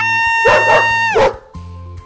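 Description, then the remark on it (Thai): A dog gives three sharp, loud barks in quick succession over a steady humming musical tone, which carries on more quietly after the barking stops. “วันนี้ฉันกะว่าจะไปท้าแข่งเสียงดังกับเจ้าหมาน่ะ เสียงอย่างฉันเนี่ยยังไงก็ชนะแน่ๆเจ้าหมาฉันมาแล้ว”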